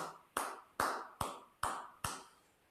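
Five sharp, evenly spaced hand claps in a steady rhythm, each with a short ringing tail, with no voices. It sounds like the slow start of applause rather than a full crowd.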